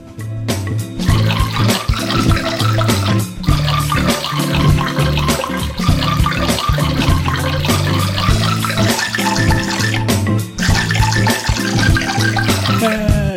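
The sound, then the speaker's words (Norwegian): A steady trickling stream of urine splashes onto glasses and spoons to make music, producing shifting pitched ringing tones that resonate over the continuous watery hiss, with brief changes in pitch throughout. “Ja, jeg tisser på glass og skjeer og ting som gir resonans, og skaper da musikk i min egen style, som jeg kaller tissias.”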